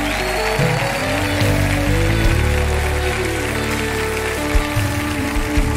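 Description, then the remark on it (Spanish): Loud, sustained applause for the Lord from a large crowd at a church worship service, a dense continuous clatter of clapping that fills the whole stretch, with steady musical tones ringing underneath. “aplauso fuerte al Señor.”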